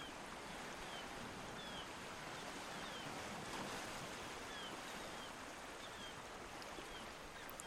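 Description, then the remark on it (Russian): Calm blue ocean surf washes steadily onto a long, quiet beach under a summer sky, foam on the wet sand, a soft, continuous rush of water with no distinct crashes, heard alone without any voices. “Вы видите синий океан, спокойный, под летним небом. Он расстилается далеко за горизонтом. Пена на влажном песке мягко ласкает ваши стопы и медленно уползает в океан.”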